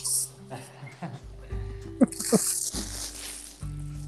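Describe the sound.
A steady hiss of heavy rain falling in Yokohama fills the background, with brief low voices and a few soft knocks over the constant wash of falling water.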